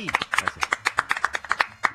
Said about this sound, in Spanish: Continuamos en el mañana, siendo las 11 y 39 minutos, y voy a pedir un aplauso fuerte que está con nosotros Sebastián Basalo, director de la THC y organizador de Expo Cannabis.